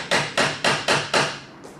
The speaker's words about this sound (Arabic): من يكون هذا الطارق وفي هذا الوقت في هذا الطقس افتحي الباب